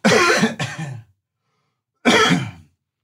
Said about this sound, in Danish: Jeg skal virkelig hoste. Ja, du hoster bare.